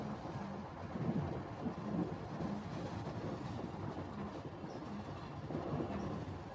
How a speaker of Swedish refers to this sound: Det rostiga, smutsiga, nersmorda lokomotivet suckade och stönade och pustade. Det slamrade och ramlade och stånkade.